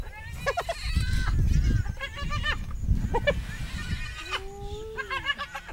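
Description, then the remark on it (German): Spotted hyenas call at night as they get ready to take over prey from a pair of lions, in a busy, overlapping chorus of cackling giggles and a drawn-out gliding whoop, fairly loud over a low rumbling background. “Merkwürdige Geräusche als ob sie sich organisieren.”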